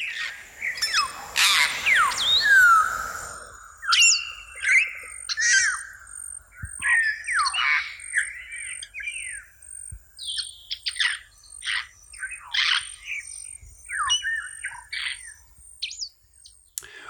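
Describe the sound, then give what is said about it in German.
Grey parrots calling to one another in the wild: a loud burst of harsh screeches at the start, then a series of shrill, sharp whistles and squawks at irregular intervals, with no one talking. “Da verständigen sich Graupapageien mit Kreischlauten und schrillen Pfeifen.”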